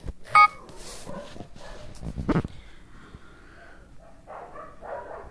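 A mobile phone alarm set to wake the owner goes off: a short, sharp electronic tone rings out at the start, then softer, warbling beeps return near the end over a muffled background.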